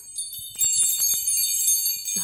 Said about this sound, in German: darf ich noch mal klingeln? Ja, natürlich, unsere Adventsklingel. Oh, so, mach mal.